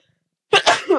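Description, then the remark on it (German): A single sneeze bursts out after a brief silence, loud and breathy with a sharp explosive onset and a short voiced tail. “Gesundheit.”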